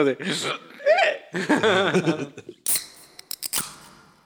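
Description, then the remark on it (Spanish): A voice imitates hiccups with a few sharp, gulping catches of breath amid laughter, followed by several quick, crisp clicking bursts. “Los míos son, son, son, ah. hipo de que ah.”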